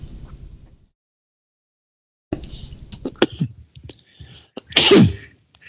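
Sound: throat clearing and coughing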